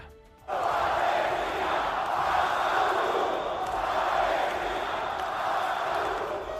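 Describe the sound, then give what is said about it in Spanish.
A large crowd of Vasconia basketball fans in Vitoria chants 'Palestina' protest slogans in unison against Israel's Maccabi over the Gaza conflict, peacefully and without incident, a loud, sustained roar that bursts in after a brief quiet moment and rises and falls in waves throughout. “con esos gritos Palestina-Ascatún, un ambiente pacífico sin ningún incidente.”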